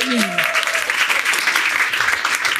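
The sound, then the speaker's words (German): An audience bursts into sustained applause for the speaker's best friend who is present, a dense, steady wash of many hands clapping at even loudness, with a brief rising whoop or cheer audible at the very start. “Großen Applaus für sie.”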